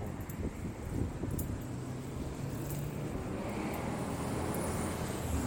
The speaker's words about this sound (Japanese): 結構ねあのー、割と車の通りの多いところを今歩いてるんでちょっとあれですね